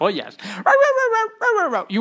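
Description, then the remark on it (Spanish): A person imitates a dog barking with a quick run of about five loud, voiced woofs and yelps. Some are short and some drawn out, with no other sounds. “Un podcast para perros. ¿Te imaginas 25 minutos de...”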